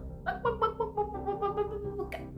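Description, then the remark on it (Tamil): A voice imitates a hen's clucking, a hen calling out while foraging here and there: a quick, steady run of short, throaty, pitched calls lasting about two seconds, moderately loud, with no other talk. “அப்படின்னு ஒரு சத்தம் கேட்டுட்டு இருந்துச்சு என்ன சத்தம் இது அப்படின்னு வீட்டை விட்டு வெளில வந்து எட்டி பார்த்தாரு அங்கே ஒரு கோழி அப்படியே கத்திட்டு இங்கேயும் அங்கேயும் இருக்கிறதெல்லாம் மேய்ஞ்சிட்டு இருந்தது”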